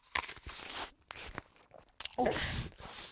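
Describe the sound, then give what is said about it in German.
Biting and chewing a meat sausage (Fleischwurst), with a couple of sharp moist bites followed by soft, squelchy chewing and crunchy mouth sounds, loud. “ihr hört mich, wie ich gerade ein Fleischwurst drin esse.”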